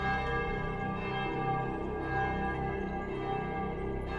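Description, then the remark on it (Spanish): A bell resonates with a steady, lingering hum of overlapping tones, its ringing sustained throughout at a moderate level, sounding distant, ringing out over the middle of a body of water, with no voices present. “Desde entonces, muchos pescadores y gente que vive a los alrededores cuentan que cada Viernes Santo por la madrugada, e incluso también en Día de Muertos, se escucha replicar una campana a lo lejos, en medio de este enigmático cuerpo de agua.”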